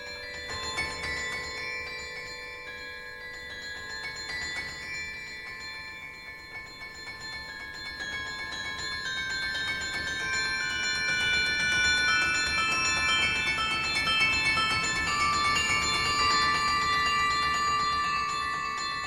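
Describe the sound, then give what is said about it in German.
A carillon played by Alex Johnson, winner of the last Queen Fabiola Carillon Competition in Mechelen, rings out with many overlapping bell tones in a flowing melody, the bells resonating and sustaining into each other, moderately loud, with no voices. “So zum Beispiel tönt es, wenn es von einem richtigen Profi gespielt wird, das Carillon.”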